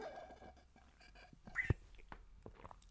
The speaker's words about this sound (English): I've just got to the bottom of my bottle and my spout is making some strange noises.